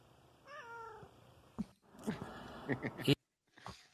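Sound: cat meowing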